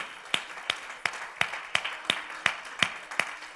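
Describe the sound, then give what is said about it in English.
A group claps hands together as a hand clap of praise to the Lord, in a steady, even rhythm, about ten sharp claps in quick succession at moderate volume, with no voices over them. “Let's give the Lord a hand clap of praise in this place.”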